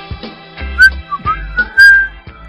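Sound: whistling a tune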